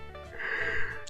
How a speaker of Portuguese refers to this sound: Caraca, só de falar bocejar, tu bocejou?